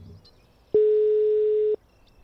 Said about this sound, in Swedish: Då ringer vi upp